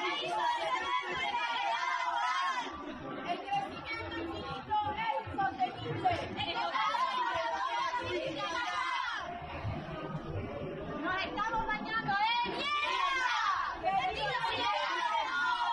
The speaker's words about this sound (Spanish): justificarán o apoyarán o entenderán estos gritos en el corazón de la propia Feria Internacional de Turismo que se celebraba en Madrid hace unos meses.